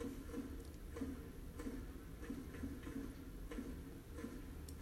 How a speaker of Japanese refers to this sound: コンコンコンコンコンコンコンコンとメガホンを叩く音がね鳴り響きますわ